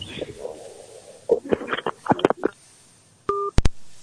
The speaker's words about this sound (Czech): teď, teď tam bylo nějaký, nějaký prasknutí nebo cinknutí. To bylo jenom položení telefonu v PK, v pohodě. Jo, a to byla strašná rána, mě to úplně vůjtlo.